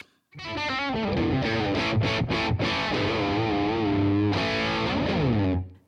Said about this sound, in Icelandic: Til að útskýra bjögun þá ætlum ég að spila hljóðdæmi af hvað gerist þegar að bjögunareffekt er settur á gítar.